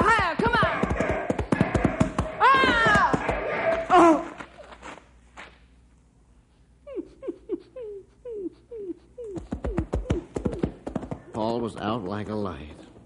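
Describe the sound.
A quick, steady run of hoofbeats as the horse Skeeter gallops, driving wild horses, knocks out a rhythmic series of hollow thuds in the middle, with voices talking before and after.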